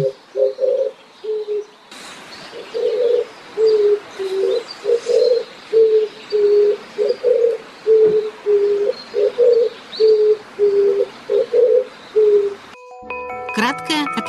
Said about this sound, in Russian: Большая горлица.